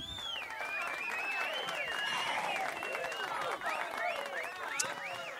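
A crowd applauds steadily for several seconds, a dense wash of clapping mixed with cheers and rising, wavering whistles, staying loud and even throughout without any talking.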